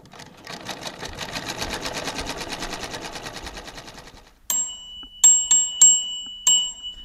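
A latest-model sewing machine stitches in a fast, steady mechanical whir for about four seconds, then stops; a handful of short, sharp, clear electronic beeps follow.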